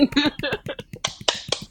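A few scattered hand claps welcoming a guest, sparse and uneven, start under a voice and then continue on their own as a handful of sharp, loud slaps.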